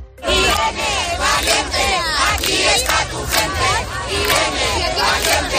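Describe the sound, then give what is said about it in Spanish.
A large crowd at the Madrid feminist movement march, setting off from the Glorieta del Emperador Carlos V and heading up Calle Atocha, chants and shouts loudly and continuously, many voices overlapping in rising, rhythmic cries with a steady low rumble of the gathered crowd underneath. “La primera en arrancar poco después de las seis y media ha sido la convocada por el movimiento feminista de Madrid.”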